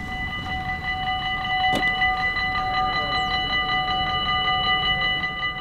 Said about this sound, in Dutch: Deze spoorwegovergang die hoort wel thuis in deze podcast.